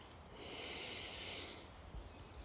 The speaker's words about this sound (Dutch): Nog eventjes in Frankrijk, in de bergen met vogeltjes, maar op de achtergrond ook de snelweg. Die hoor je hier ook.